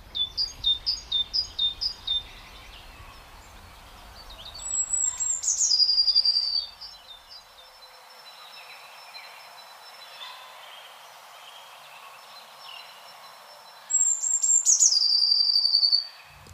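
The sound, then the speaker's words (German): Small tits sing back and forth outdoors: a rapid series of bright repeated notes opens, then a blue tit answers twice with high thin trilling phrases, clear, with faint chirps and insect hum between. “Und Blaumeise antwortet, ich bin nicht zimperlich mit dir.”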